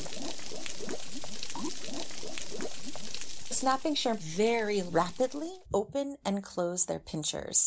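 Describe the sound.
Dense underwater crackling of snapping shrimp, which rapidly open and close their claws and burst tiny bubbles in the water, a steady sizzle of countless tiny pops like frying bacon, fills the first few seconds before a man starts speaking and the crackle fades out.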